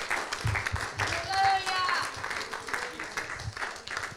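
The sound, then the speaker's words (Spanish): An audience applauds steadily for several seconds, giving applause to the Lord, 'the one who lives forever', a dense, even clatter of many hands, with voices and a brief high whistle-like tone rising through the middle. “Dale un aplauso al que vive para siempre.”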